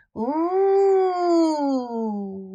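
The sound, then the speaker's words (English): A voice imitates the wind howling: one long, steady wooo that swells, holds a mid pitch, then slowly slides lower and fades a little over about two and a half seconds. “Softly, the wind began to blow.”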